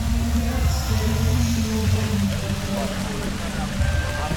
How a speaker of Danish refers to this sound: Regnvejret er virkelig taget til, men der er alligevel dukket omkring 20-30 unge mennesker op, og vi er lige rykket hen foran Folkets Hus.